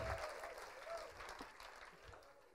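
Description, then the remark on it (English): An audience applauds for the Lord, a dense, steady wash of many hands clapping at once, fairly quiet and sustained throughout with no voices standing out. “Somebody give the Lord a big clap.”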